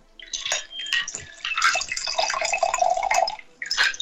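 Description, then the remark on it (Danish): An orange and sea buckthorn sparkling water mixed with spirits is poured into a chilled wine glass, a steady splashing stream with a faint rising tone as the glass fills, broken by a brief pause before a final short pour. “Nå, men øh, så har jeg fundet det dejlige afkølet vinglas frem, som vi lige hælder op i.”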